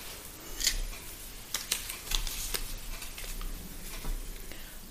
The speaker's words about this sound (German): Gisela verspürt ein Hüngerchen und schmeißt Obst in den Mixer.